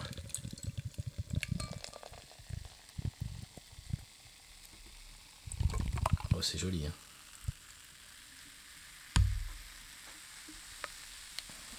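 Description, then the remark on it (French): Beer pours with a steady crackling fizz of foam and bubbles, a few clinks and splashes, and a brief voice speaking partway through. “Ah, ça pétille. Ça l'a bien fait mousser en plus.”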